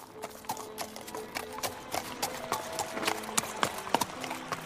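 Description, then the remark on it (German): The hooves of a single horse carrying two riders clip-clop at a steady walking pace, a run of sharp knocks, with faint rustling and background noise around them and no one talking. “Beide auf einem Pferd gaben ein illustres Bild ab. Die Elfin Iranella führte das Pferd”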